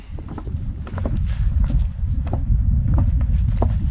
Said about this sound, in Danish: Går vi over en lille øh, bro her.